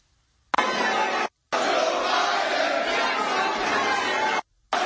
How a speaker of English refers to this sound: That's an F Joe Biden chant.